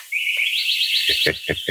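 A sparrow chirps clearly, starting with a high, steady warbling trill and ending in four quick, rhythmic chirps, with no talking.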